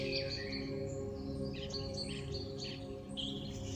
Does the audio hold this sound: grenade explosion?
no